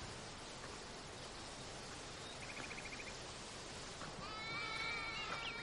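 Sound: sheep bleating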